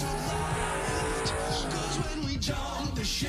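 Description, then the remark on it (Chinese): The engine of Button's race car roars steadily, its pitch rising and dropping in rapid gear-shift sweeps, loud and continuous with a faint tire squeal, and no talking. “可以触摸巴顿引擎轰鸣时的热度”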